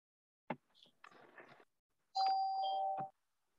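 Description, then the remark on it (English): After a few clicks and a brief rustle, an electronic doorbell rings loudly, one sustained chime lasting about a second and ending with a sharp knock. No one speaks. “We had a quick interruption there for a doorbell, didn't we?”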